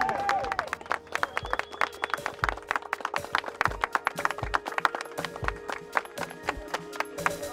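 A huge crowd of supporters applauds steadily as a hill runner arrives back at his starting point after slightly under 31 hours on the move: dense overlapping claps forming a continuous patter with sharper individual claps standing out, and faint voices mixed in underneath.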